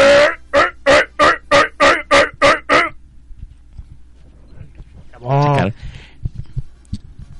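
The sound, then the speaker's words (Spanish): A costumed cosplayer imitates Gamorrean creature grunts, the sounds heard in the film: nine quick, loud, evenly spaced bursts from a man's voice in a steady rhythm, then a pause and one longer, lower drawn-out growl. “Solo hace los sonidos que oímos en la película.”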